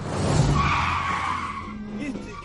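A car brakes hard as it overtakes and cuts across in front of another car, its tires skidding in a loud, sustained screech that holds a steady high pitch for about two seconds before easing off, with engine rumble beneath.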